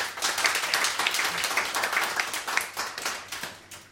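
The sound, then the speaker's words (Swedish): A short round of applause from a small group, many hands clapping in a dense, steady patter that holds for a few seconds and then thins out toward the end. “En applåd.”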